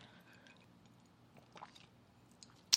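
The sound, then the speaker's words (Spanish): A speaker takes a quiet sip of a drink, with faint wet slurping and swallowing noises, ending in a brief sharp click. Nobody talks. “Déjenme darle un trago, ya vamos a terminar.”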